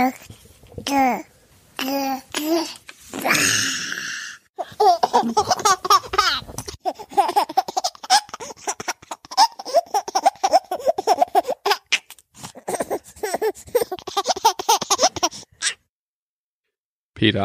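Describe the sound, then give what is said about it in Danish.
A baby girl babbles in short vocal bursts, then breaks into a long, busy stretch of giggly laughter before going quiet. “Det var en baby, der først øh, pludrede og så grinte.”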